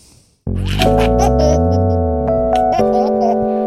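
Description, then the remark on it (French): A baby laughs loudly, a continuous stretch of high, squealing giggles that begins abruptly after a brief quiet moment and carries on without pause. “Un bébé qui est en train de rigoler.”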